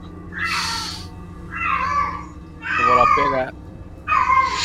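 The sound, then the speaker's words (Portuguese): A female cat in heat yowls in four long, drawn-out wails, each about a second long with short pauses between, loud, while a person speaks briefly over them. “Mano, minha gata no cio, perdão.”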